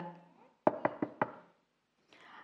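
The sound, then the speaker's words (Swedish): Four quick, evenly spaced knocks on a door, crisp, with brief murmured voice sounds just before and after. “De knackade på en dörr.”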